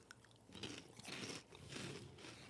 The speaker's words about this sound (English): All that chewing in the microphone. If you hate that sound, mute it. I want them to get the full experience in the listening audience.